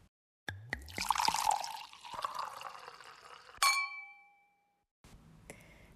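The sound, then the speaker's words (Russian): A drink pours into a glass with a few light clinks at the start, then a bright ringing clink of glass rings out and fades, followed by a soft rattle. “Сегодня пятница, и значит, что мы снова прожили маленькую жизнь с предыдущего нашего выпуска и готовы чем-то поделиться, о чем-то подумать, что-то вспомнить и поднять бокальчик за все хорошее”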